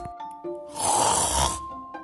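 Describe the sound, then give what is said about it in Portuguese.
A single loud, rasping snore from a dog swells up and fades over about a second, harsh, with quiet tonal background before and after. “O ronco era tão alto que ninguém conseguia dormir.”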